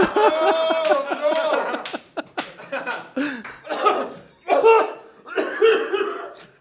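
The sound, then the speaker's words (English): A loud fit of repeated harsh, uncontrollable coughing in irregular bursts, one spasm after another with brief gasps between, partly blending into laughter. “Coughing un- uncontrollably in public.”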